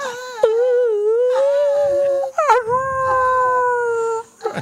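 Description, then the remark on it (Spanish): A wolf howls in two long, wavering, tonal cries, the first gliding steadily and the second rising sharply before sliding down and holding. Loud, with no talking. “Ese ya es un lobo, güey.”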